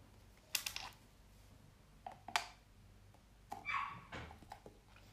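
dog barking in background

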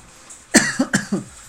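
coughing

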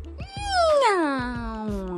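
cat meowing

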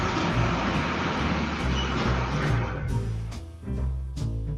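garbage truck passing

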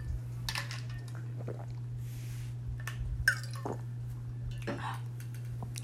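drinking water

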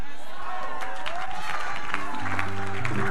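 audience member clapping

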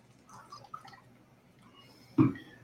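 drinking water

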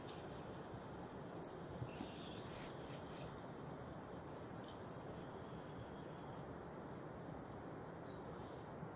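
birds singing outdoors

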